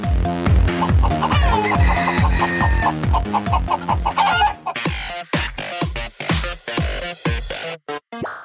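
A rooster clucks in quick repeated bursts and crows over a steady, driving rhythmic beat, loud, with sharper percussive hits toward the end and no talking.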